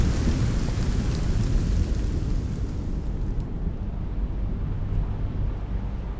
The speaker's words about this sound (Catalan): I comença a ploure.